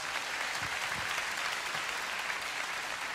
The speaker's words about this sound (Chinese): 那愿意的拍手把荣耀归给主好不好？